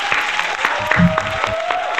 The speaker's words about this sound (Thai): และสุดท้ายนี่ครับผมอยากจะปรบมือให้กับคอมมูนิตี้ของพวกคุณคุณคุณคุณคุณและก็คุณทุกทุกคนครับ